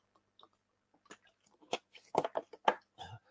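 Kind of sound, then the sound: human body sound, person sipping water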